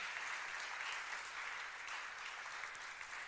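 Steady audience applause fills the whole stretch, a dense wash of many hands clapping at an even level without a break, bright and hissy with no voices on top.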